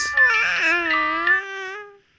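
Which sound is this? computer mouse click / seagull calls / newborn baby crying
newborn baby crying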